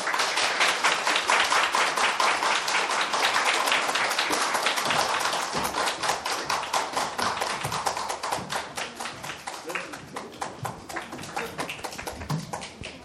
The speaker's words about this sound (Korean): 모두 환영의 박수로 맞이해 주시면 감사하겠습니다.